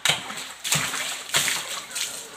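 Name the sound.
water splashing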